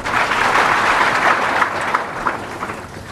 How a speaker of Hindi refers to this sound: तालियां तो बजा देते हो लेकिन अवसर पर इस बात को याद रखो आप भी निर्दुख हो तो और मजा है उसकी भी एक तालियां और बजा देंगे फिर तो हम ही बजाएंगे आपके तरफ से